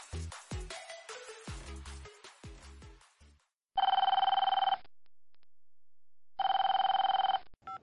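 A telephone rings twice in loud electronic bursts, each about a second long with a pause between, following a flurry of short clicks and tones.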